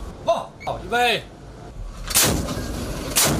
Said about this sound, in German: Das chinesische Staatsfernsehen hat auch in den vergangenen Tagen Bilder von Kriegsschiffen gezeigt, Raketen wurden abgefeuert.